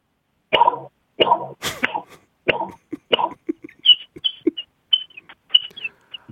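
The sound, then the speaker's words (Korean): A voice mimics bottles being popped open, five sharp breathy pops in a steady row, then switches to quick, high-pitched peeping like a chick, with small mouth clicks between the chirps. “자, 예, 병을, 병을 다섯 개를 따고, 아, 병아리가 좀 더 좋아했으면 좋겠어요.”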